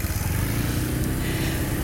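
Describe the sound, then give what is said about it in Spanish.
Motorcycles and cars rolling slowly along a narrow street with no sidewalks, the cars moving slowly with motorbikes behind, a steady, loud low engine rumble with a buzzing motor drone running throughout, no voices. “Te frenás un rato y todos te esperan atrás, los autos van lentos, las motos detrás.”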